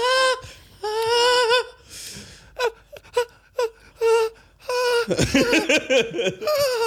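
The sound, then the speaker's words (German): A voice imitates the high-pitched wailing made during first cold showers, letting out several long, shrill, quavering cries separated by short breathy gasps, then breaking into laughter near the end. Fairly loud. “man muss sagen, für alle da draußen, wir haben beide ähm, sehr hohe Töne angestimmt bei diesen ersten kalten Duschen.”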